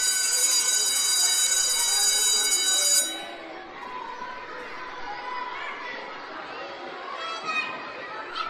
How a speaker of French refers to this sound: Un dernier bisou et hop, Lucas se retrouve dans sa classe alors que la sonnette de l'école retentit.